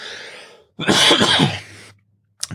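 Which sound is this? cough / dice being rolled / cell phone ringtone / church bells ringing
cough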